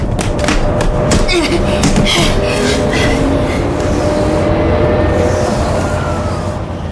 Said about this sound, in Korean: 둘은 허겁지겁 열차역으로 들어가 막 출발하는 자기 부상 열차에 올라탔다.